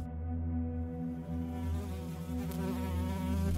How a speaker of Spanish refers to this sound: Otra maldita mosca intentó meterse por mi nariz. La aplasté con mis dedos y me limpié sus tripas en la playera.